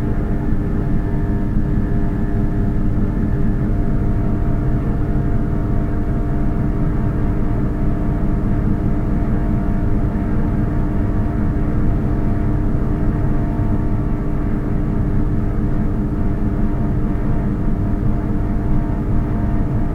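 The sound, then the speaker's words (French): A steady, low mechanical drone hums through a corridor of the Maison de la Radio (Radio France) in Paris, 16th arrondissement, recorded by Éric Lacasa, unbroken and even in loudness, with layered low tones and a faint higher whine, no voices or distinct events. “vrombissement du corridor de la Maison de la Radio, à Paris, 16e arrondissement, capté par les micros et les oreilles d'Éric Lacasa.”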